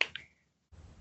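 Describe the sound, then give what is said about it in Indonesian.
A chair gives two quick, sharp clicks, the second trailing into a brief thin squeak, then goes quiet before a soft rustling shuffle follows. “iya itu bunyi kursinya kan kan bunyi kursinya iya.”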